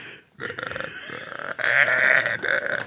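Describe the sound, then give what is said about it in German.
A voice imitates a muffled, drawn-out burp stifled behind a hand held at the mouth: a throaty croak of about three seconds with a strained, bleating quality, swelling louder toward the end, with no words spoken. “er sitzt dann nämlich immer, weißt du, wenn er rülpst, ja, dann sitzt er da und dann macht er so ein bisschen so die Hand vom Mund und dann macht er so und macht er so.”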